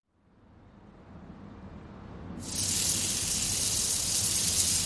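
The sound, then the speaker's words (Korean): A hotteok, a Korean sweet pancake made from bread and all-purpose flour dough filled with brown sugar, cinnamon powder and nuts, fries in hot oil with a steady sizzle that swells into a brighter, louder crackling hiss about halfway through and stays constant. No one speaks. “강력분과 중력분을 이용해 지른 반죽을 만든 후 흑설탕과 계피가루, 견과류 등을 넣고 기름에 튀기듯이 구워 먹는 호떡은 그냥 보기에도 칼로리가 높아 보이는데요.”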